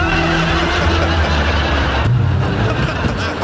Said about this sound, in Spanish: ahí viene un carro, se ven las luces. Oye, ¿no será un food truck? Una lonchera con tacos. Mm. Y viene para acá.